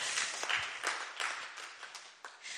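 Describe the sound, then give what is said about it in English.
An audience applauds the people who serve in kids' church and youth ministries, a dense wash of many hands clapping together at steady strength for a few seconds, with no voices standing out. “Uh, yeah, they do deserve a clap.”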